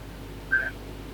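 A single short electronic telephone tone chirps once as a call-in line rings, brief and clear over a low steady background hum, with no voices.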